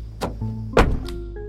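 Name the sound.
car door closing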